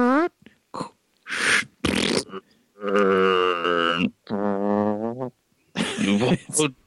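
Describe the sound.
A voice imitates a corpse expelling gas: a few short sputtering bursts, then two long, low, buzzing blasts, and a final squeaky puff, loud and wordless.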